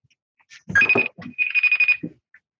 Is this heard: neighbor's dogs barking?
no